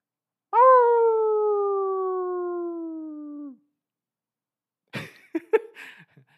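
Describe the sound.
A person imitates a dog howl: one loud, sustained wail of about three seconds that slowly sinks in pitch, followed after a pause by a few brief scuffling noises.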